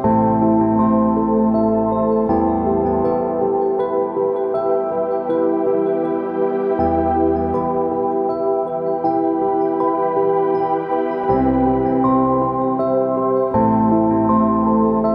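Royalty-free instrumental space ambient electronic music made with synthesizers, electric pianos, pluck synths and soundscapes: sustained pads and shimmering tones, steady and fairly loud throughout, with a deep bass swelling in and out between sections and no voices.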